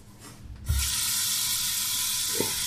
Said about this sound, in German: Ich lasse schon mal ein bisschen Wasser ein, ne?